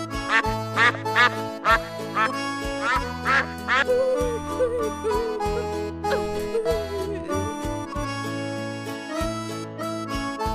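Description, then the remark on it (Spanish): A bouncy children's song intro with a steady bass line, punctuated early on by a quick series of loud, nasal duck quacks before a playful melody takes over. “A continuación, vamos a escuchar la canción de los patitos.”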